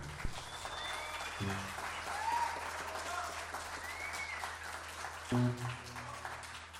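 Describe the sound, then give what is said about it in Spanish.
Steady applause from an audience at a live music performance as a piano and keyboard player is introduced, a dense wash of clapping with a few brief cheers and low musical notes briefly sounding underneath. “en el piano, en los teclados, a Gabriel Castillo, por favor, un aplauso”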